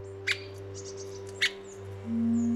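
Two sharp, short call notes of a three-toed woodpecker about a second apart, with a few faint high chirps between them over a steady low hum.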